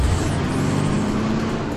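A loud truck engine roars steadily with a deep, rumbling drone that holds throughout, like a heavy vehicle driving past at speed. No voices are heard.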